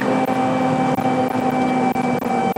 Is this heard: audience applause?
no